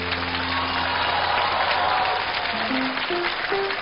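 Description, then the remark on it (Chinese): Steady, dense audience applause for film director Peter Chan (Chen Kexin) fills the whole stretch at an even loudness, with a few sustained musical tones stepping upward in pitch underneath toward the end. “再一次掌声送给陈可辛导演。”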